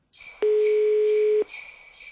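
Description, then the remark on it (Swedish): A single telephone ringback tone during an outgoing call: one steady, mid-pitched beep lasting about a second, loud over a faint hissy line noise, with no one talking. “Och då ville hon höra den först sa hon, så jag ringde henne och kollade.”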